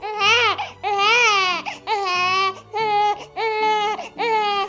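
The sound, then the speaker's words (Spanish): Loud crying, presented as Chivas fans after the Chivas tournament ended: a series of about five drawn-out, high-pitched wailing sobs, each separated by brief gasping pauses, with no talking. “si estoy llorando ya”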